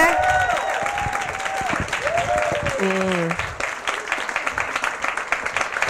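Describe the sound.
An audience breaks into sustained applause, a dense wash of many hands clapping at a steady loudness, with a voice calling out over it in the first few seconds.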